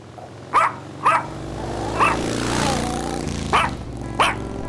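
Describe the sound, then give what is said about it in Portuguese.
A small Pomeranian dog, perched on a little armchair on a balcony, yaps at motorcyclists in the street in sharp, high-pitched barks, five short bursts spaced about a second apart, with a faint whine between them over a steady background hum. “O cachorrinho de pelos lisinhos, um lulu da Pomerânia, pequeno e com olhinhos amendoados, subia na poltroninha e se aconchegava bonitinho no espaço, latindo, educado para os motoqueiros na rua.”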